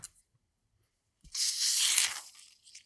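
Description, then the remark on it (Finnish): A bottle of lehtikuohu sparkling drink is opened for a May Day (vappu) toast with a soft click, then a loud, bright hiss of escaping fizz that lasts about a second before fading. No one speaks. “No niin, sihautetaanko?”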